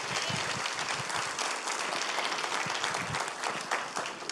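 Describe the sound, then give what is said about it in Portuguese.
A crowd gives a round of applause for Jesus, clapping steadily and loudly, a dense wash of many hands applauding without pause for several seconds, with no voices standing out. “Vamos dar mais uma forte salva de palmas para Jesus.”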